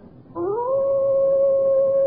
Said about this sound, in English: However, I think even an experienced hunter might well find the baying of a fiend dog, a hound from hell, a soul shattering experience.